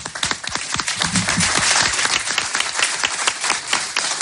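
A crowd applauds steadily, many hands clapping in a dense, continuous patter that stays fairly loud throughout with no voices over it.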